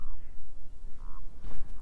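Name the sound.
toads croaking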